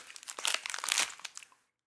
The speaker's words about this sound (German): Schmatzen wir hier auf dem türkischen Honig rum. Ja, aber ich finde, den kann man auch essen. Türkischer Honig aus Griechenland. Hm? Nee, weißer Nougat.